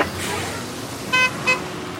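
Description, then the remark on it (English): An electric school bus pulls away to start drop-off, with only a soft hum under steady outdoor road noise, punctuated by two short, bright horn toots in quick succession. Faint voices murmur in the background. “He's noticed this bus is different. It's not as loud as the other ones, but it's definitely fun to ride this bus.”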